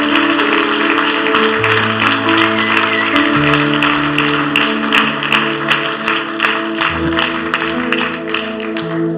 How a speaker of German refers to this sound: Vielleicht können wir mal einen fetten Applaus geben für all die, die diese Entscheidung getroffen haben.